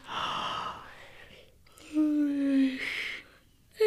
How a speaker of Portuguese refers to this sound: Ups! Agora ele relaxou para valer. Delícia! E ó, oh, lá vem o primeiro bocejo.